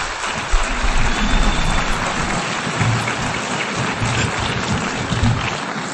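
Dense, steady applause from a large audience fills the space, a continuous wash of many hands clapping at once, sustained and fairly loud throughout with no voices.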